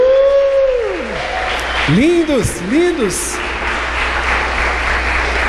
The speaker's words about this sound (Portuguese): Cadê o casal mais lindo aqui? Faz assim, recém-casados. Não, levanta a mão, vocês estão tímidos demais. A igreja aplaude aí.